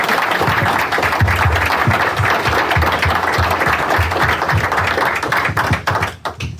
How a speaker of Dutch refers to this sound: Nee, ik wil wel een applaus voor de mensen die hier zo hard hebben gewerkt.